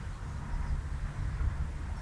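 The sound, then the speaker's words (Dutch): A tractor engine rumbles low and steadily on a sunny day, a continuous deep drone with no breaks and no voices over it. “Ik hoor op de achtergrond een eh, trekker ronken.”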